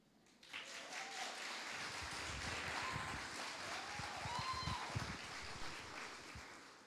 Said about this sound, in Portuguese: Poxa, se fosse você, eu ia dar um aplauso.